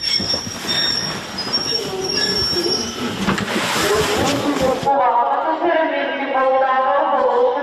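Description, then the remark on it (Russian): A train arrives at Poltava railway station in the middle of the night with loud, sustained metallic wheel squeals and rumbling carriages, the screeching steady before it drops to a thinner whine for the final seconds. “Посреди ночи Полтавский вокзал встречает поезд с сиреной.”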